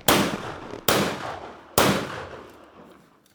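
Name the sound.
three gunshots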